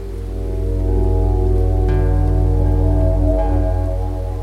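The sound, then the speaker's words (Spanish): Steady rain falls continuously beneath a low, droning hum. The wash of sound holds at an even, fairly loud level throughout, with no voices present. “El hortelano reflexionó bajo la lluvia.”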